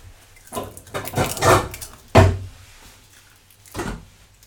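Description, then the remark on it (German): Pieces of walnut are scattered over carpaccio on a plate in a few quick clattering bursts, with one sharper knock midway and a last brief patter, no voices. “Jetzt mache ich gerade äh, Walnüsse über das Carpaccio.”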